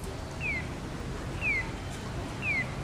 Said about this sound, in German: Fußgängerampeln zwitschern bei Grün wie Vögel oder spielen Volkslieder.